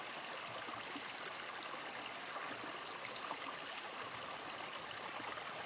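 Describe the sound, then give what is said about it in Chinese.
A small, clear stream babbles and trickles steadily, a continuous bright hiss of running water with soft gurgles, even in level throughout with no voices. “然后有水声，小小的溪，清澈的溪，你听到水声吗？”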